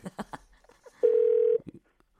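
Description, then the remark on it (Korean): A phone call being placed to a listener on Park Myung-soo's Radio Show: a few quick keypad beeps, then a single steady mid-pitched ringback tone lasting about half a second, followed by soft clicks and a brief pause. “한번 전화 한번 걸어봅시다.”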